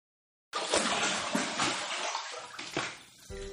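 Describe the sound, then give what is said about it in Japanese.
Bath water splashes and sloshes in a tub, starting abruptly after a brief silence and continuing loudly with uneven surges for a few seconds, no voices. “お風呂から全世界に向けて愛を込めてお送りするまったりとした番組です。”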